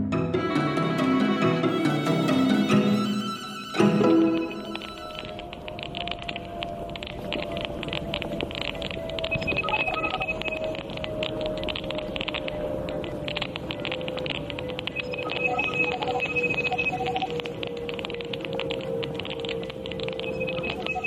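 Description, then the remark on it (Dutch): Strange electronic beeps and thin warbling tones, picked up through a hearing aid worn by a British science journalist on a walk in his neighbourhood, flicker over a steady hiss of outdoor noise, with a brief burst of richer tones at the start and a long drifting whine throughout. “Mysterieuze buitenaardse bliepjes? Nee, dit is het eh, geluid dat de Britse wetenschapsjournalist Frank Swain opnam tijdens een wandeling in zijn buurt”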